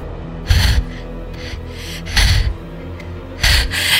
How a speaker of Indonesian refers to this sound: … kembali dengan napas memburu.